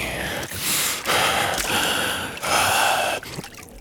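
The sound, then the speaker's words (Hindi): Water trickles and splashes steadily, a bright hissing flow broken by a few brief dips and surges, with no voices. “ये ये पानी पानी है तो जिंदगी है”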